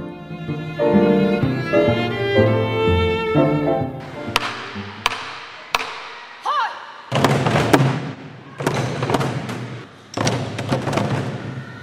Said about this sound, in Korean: 우렁찬 북소리가 체육관 안에 울려 퍼집니다. 한국 전통 북과 춤은 일주일 동안 열리는 한국 문화 캠프에서 빠질 수 없는 수업입니다.